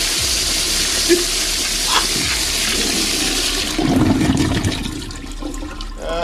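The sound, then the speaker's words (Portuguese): A toilet flushes with a loud, steady rush of water that surges midway and then gradually tapers off, with no talking. “Descarga. Bota ele.”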